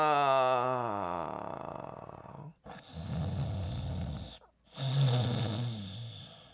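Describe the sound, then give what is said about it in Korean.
A voice imitates the loud snoring of a father who fell asleep while giving his child an airplane ride, in three long, rasping breaths, each separated by a brief pause, with a low rumbling buzz and no words spoken. “아니, 그 잠깐 사이에 비행기를 태워주면서 잠이 든 거 있죠?”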